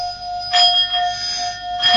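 A small Tibetan singing bowl, struck, rings with a steady, pure sustained tone and a bright high overtone, while brief soft rustling bursts rise and fade around it.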